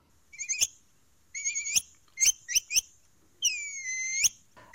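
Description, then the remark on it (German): A capybara's high, whistling chirps come in short bursts, with a few sharp clicks between them and one longer wavering whistle near the end. There is no talking. “Nee, ähm, es wohnt, Tipp Nummer zwei, in feuchten Regionen in Südamerika das ist ein Kapibara. Ein Wasserschwein.”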